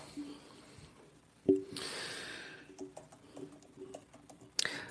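Quiet, irregular keyboard typing: scattered soft clicks and taps with a couple of sharper keystrokes and a brief hissy rustle, close by, with no one talking.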